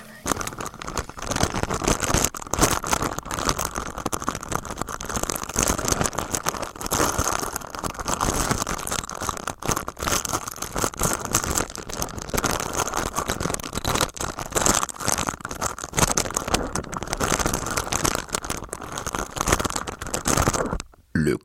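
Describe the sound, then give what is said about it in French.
A plastic bag rustles and crinkles loudly right up against the microphone, a dense, continuous crackling that keeps going for about twenty seconds with no voices, cutting off abruptly at the end. “Un sac plastique peut ainsi être particulièrement bruyant, surtout lorsqu'il est enregistré de très près, la preuve.”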